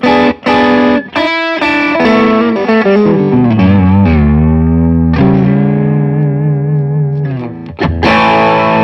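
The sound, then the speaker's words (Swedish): Electric guitar played through a Lightspeed overdrive pedal, loud and gritty, with a few quick strums, then long sustained notes that slide and bend downward before ringing out again. No voices. “Lightspeed.”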